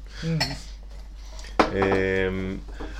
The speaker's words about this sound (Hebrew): רק ככה שכולם יבינו, אנחנו שותים ותואמים פה יין. אנחנו ביין השלישי כן. כבר. רגע, אם אתם שומעים כל מיני צלילים של כוסות אה, כן. נוקשות וכוסות ומים, אז זה לא מים, זה יין.